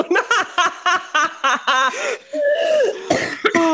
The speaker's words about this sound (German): Siehst du, musst schon wieder husten.